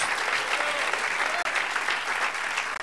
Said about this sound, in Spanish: Démosle un buen aplauso al Señor, hermano.